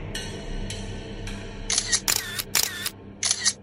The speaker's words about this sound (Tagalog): Bigla na lang lumiwanag ang paligid at nagulat ako sa sunod-sunod na flash ng kamera na halos bumulag sa mga mata ko.